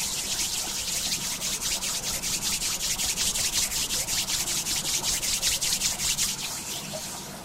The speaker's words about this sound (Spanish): Anda moviendo y puedes comenzar a frotar las palmas de las manos.